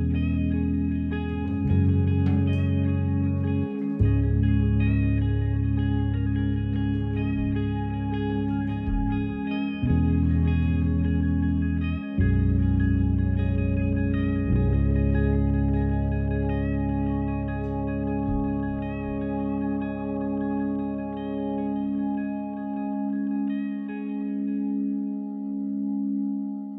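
A hymn sung by a vocal group, with slow, sustained harmonised notes over a deep, heavy low end, playing loudly and steadily throughout with no talking.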